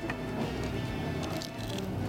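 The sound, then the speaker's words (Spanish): A bite into a crunchy tlayuda topped with a little tomato, onion and lime, followed by steady crackling, squishy chewing with a few sharper crunches, heard on its own without talking. “Y adelante, buen provecho.”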